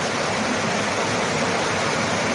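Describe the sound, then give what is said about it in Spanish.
Heavy rain pours down in a steady, dense, loud roar, with a constant hiss of countless drops and no pauses or voices. “sí, porque estoy aquí como gritando y yo dije, me estarán escuchando y no quiero que, sientan que los estoy, les estoy gritando, pero es que aquí yo siento fuerte la lluvia.”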